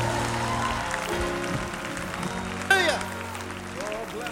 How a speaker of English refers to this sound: If you believe it, give Jesus the biggest shout of praise in the room this morning.